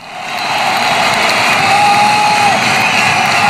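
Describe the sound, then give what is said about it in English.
A huge packed crowd at the Nou Camp stadium in Barcelona, Spain, roars in expectation at a La Liga football match between Barcelona and Real Madrid, a dense, loud wall of cheering and shouting that swells early and holds steady, with occasional whistles piercing through the din. “Just listen to the roar of expectation from this packed Nou Camp in Barcelona.”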